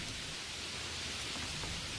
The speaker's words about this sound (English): When it rains, people usually dash for cover.